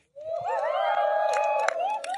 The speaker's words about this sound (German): Also, wir haben eben gehört, es ist der Sonntag zum Jubeln. Ich will euch mal jubeln hören.